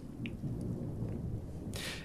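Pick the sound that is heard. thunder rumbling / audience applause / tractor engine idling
thunder rumbling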